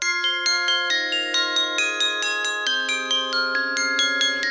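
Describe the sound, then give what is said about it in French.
A bright glockenspiel cover of a pop song plays alone, with quick, evenly spaced metallic strikes ringing over sustained tones in a steady, bouncy rhythm. “Et ben Barberousse, il est très glockenspiel en ce moment.”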